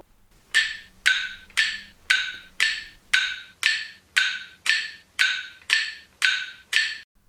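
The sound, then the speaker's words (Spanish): A metronome, a device musicians use to play at a regular tempo, ticks alone at a steady, moderate tempo. It makes about a dozen crisp, sharp clicks with short ringing tails, evenly spaced. “Este es el sonido de un metrónomo un aparato que le sirve al músico para tocar piezas con un tempo regular, o sea, un ritmo regular, pero también se utiliza en una técnica de musicoterapia llamada RSC.”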